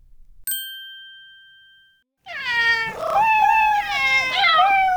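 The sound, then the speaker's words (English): A single bright chime rings out and fades, then a chorus of cats meows loudly and continuously, several overlapping yowls rising and falling together. “Can you see nine cats?”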